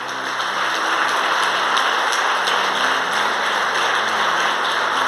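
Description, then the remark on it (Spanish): A church audience claps steadily for the Lord for several seconds, a dense, even wash of many hands with no voices, holding at a constant loud level throughout. “Podríamos darle un aplauso al Señor hoy.”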